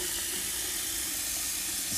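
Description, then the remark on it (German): Water runs steadily from a tap into a bowl of rice, refilling it to rinse the rice again, a continuous soft hissing pour that holds for the whole moment with no talking over it. “Und noch einmal mit Wasser befüllen.”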